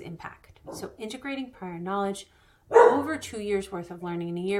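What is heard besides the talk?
dog barking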